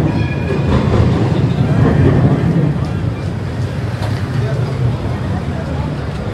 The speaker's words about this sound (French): Nous prenons le métro aérien et découvrons le Blue. Cette boucle nous permet de voir le centre-ville, quartier des affaires. La ligne de métro aérien en fait le tour.